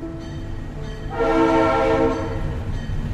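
At a railway station, a train horn blares for about a second over a steady low rumble of railway machinery, loud, then fades back into the idling engine drone. No one speaks.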